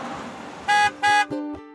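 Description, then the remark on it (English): Two loud, steady car horn honks from a 1984 Oldsmobile station wagon in quick succession, followed by a fainter, lower horn blast, all over a soft background rumble with no talking. “We pile into our land of Kukalaka 1984 Oldsmobile Flying Station Wagon”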